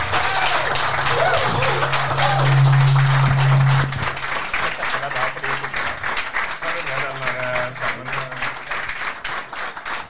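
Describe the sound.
A crowd applauds steadily for about ten seconds, a dense rattle of many hands, with a low sustained tone humming underneath during the first few seconds and faint indistinct voices mixed in.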